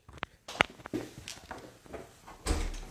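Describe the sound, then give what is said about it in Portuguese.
A door being opened to let in Duque, a pet who was knocking at it: a few sharp latch clicks and handle rattles, then a louder thud as it swings open with a low rumbling scrape. “Pera, rapidinho, deixa eu abrir pro bichinho.”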